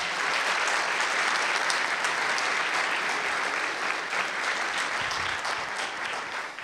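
A round of applause from a crowd, dense steady clapping that holds at a constant level for several seconds before tapering slightly at the end, with no talking over it.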